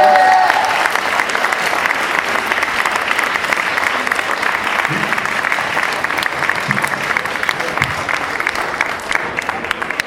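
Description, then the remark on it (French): An audience at a public screening of La Petite Mort at the TGS claps steadily and loudly for voice actress Brigitte Lecordier for the full ten seconds, a dense, sustained wash of applause from many hands without pause. “et nous avons Brigitte Lecordier qui joue La Petite Mort, ah, si vous voulez l'applaudir s'il vous plaît.”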